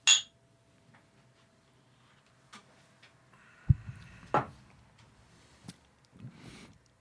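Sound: glasses clinking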